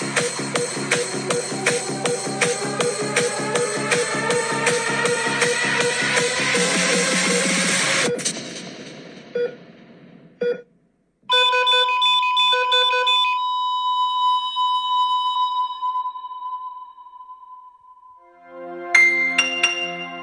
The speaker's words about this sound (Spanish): Oye, pero viejo, contextualicemos esto. Se supone que una canción como de carrete, weón, música electrónica.